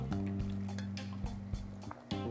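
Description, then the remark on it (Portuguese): Wet sipping and swallowing noises of a person drinking a little water, a few soft gulps and small clicks spaced over a couple of seconds, with a steady low hum underneath and no talking. “E é isso beber mais um pouquinho de água, se hidratar, né?”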